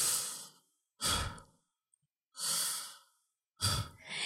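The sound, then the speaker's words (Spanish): A voice imitates soft, airy breathing, four slow breaths in a steady in-and-out rhythm with short silent pauses between them, with no talking. “estaba durmiendo y a un lado del cesto de eh, ropa sucia, escuchaba que alguien respiraba.”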